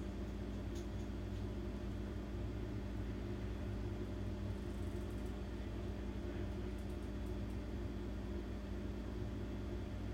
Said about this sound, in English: I talked about this fucking motorcycle. It's a truck. It's a big truck.